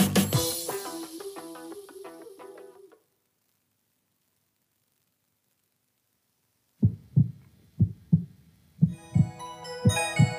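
A snippet of music cuts off into silence, then a steady heartbeat begins: low, soft thumps in a regular rhythm. Bright music soon joins and plays over the continuing beats.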